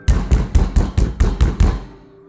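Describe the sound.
Rapid knocking, about seven hard, evenly spaced raps in quick succession, loud, imitating the door of a house shaking and rattling in its frame, then a short ringing fade.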